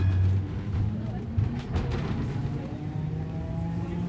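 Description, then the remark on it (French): A wooden tram on line 1 towards Paseo Alegre on the Atlantic coast, heard from on board, rolls steadily along rails with a constant low rumble and droning hum, while a few sharp creaks and clicks of its wood break through midway. “On entend le bois craquer et le roulement sourd de notre course sur les rails.”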